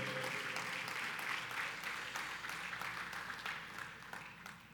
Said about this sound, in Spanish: Eh, un fuerte aplauso a ustedes por estar aquí en la casa de Dios en la mañana de hoy.